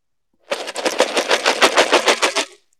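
A box filled with wooden board-game meeples, some shaped like strange animals, shaken hard for about two seconds, a loud, rapid rhythmic rattle of many small pieces knocking together, with no voices.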